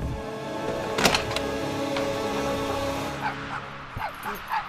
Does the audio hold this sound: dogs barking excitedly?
yes